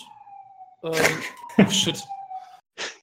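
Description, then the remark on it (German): A steady wailing emergency vehicle siren drones in the background throughout, holding a sustained tone beneath a man's hesitant speech and a short laugh. “Sorry für die Sirene im Hintergrund.”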